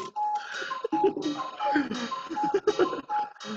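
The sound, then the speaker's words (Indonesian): A clock chimes nine o'clock, sounding nine times, in a run of sustained, bell-like tones in a steady melodic sequence, fairly loud, filling the whole stretch without pause. “jadi ini kenapa ada alarm oh iya alarm apa jam sembilan jam jam sembilan pas sembilan kali bunyi kan tadi kalau dihitungin ntar nih jam sepuluh ada sepuluh kali bunyi tuh”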